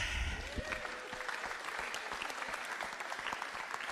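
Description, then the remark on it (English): A church audience breaks into steady applause, a dense patter of many hands clapping at once, sustained throughout without any voices standing out. “So let's give her a clap.”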